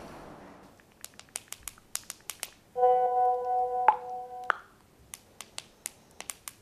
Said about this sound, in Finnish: Mä vastaan Kivasti vaan, että... kynnet näpyttää.